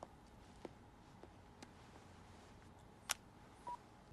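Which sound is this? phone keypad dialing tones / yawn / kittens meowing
phone keypad dialing tones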